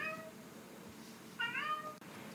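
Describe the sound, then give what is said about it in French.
A house cat meows twice from behind a closed door, shut out of the room, a short call at the start and a longer, rising-and-falling one a second later, both slightly muffled against a quiet background. “Oui, oui, oui, vous avez entendu, il s'agit de mon chat qui est derrière la porte et qui est jaloux parce que je ne le laisse pas rentrer dans la pièce où je suis.”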